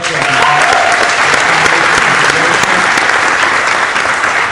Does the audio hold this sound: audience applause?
yes